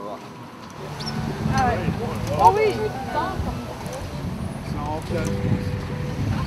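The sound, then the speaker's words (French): A steady, low engine drone from a sailboat running on its motor, continuous throughout, with wind and water noise around it while people talk briefly over it. “nous attendons la tempête. Et nous sommes au moteur.”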